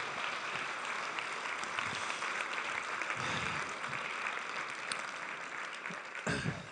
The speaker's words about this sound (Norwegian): Kan vi ikke gi han en applaus? Takk for at han deler.